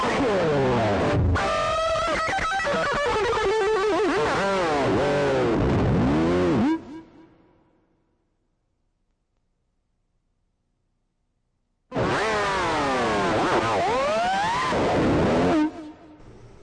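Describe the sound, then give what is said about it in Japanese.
Loud, distorted electric guitar plays two harsh bursts with swooping, bending pitches, separated by a few seconds of silence. The second passage is shorter and stops abruptly. “ディストソンギターをガーッとね、えー、鳴らす曲がありましたけどちょっと聴いてみましょう”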